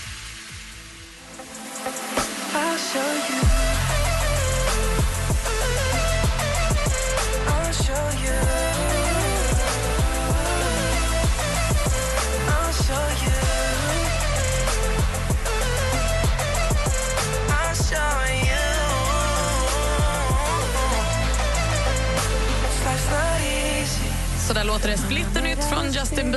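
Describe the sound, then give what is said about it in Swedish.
A newly released pop single plays loud and steady, with a full mix and a deep sustained bass that enters a few seconds in after a thinner opening, continuing without any talking over it. “I'll show you heter senaste singeln.”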